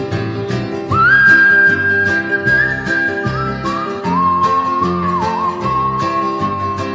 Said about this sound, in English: I can hear that music yet. Grandma whistling, what a friend we have in Jesus.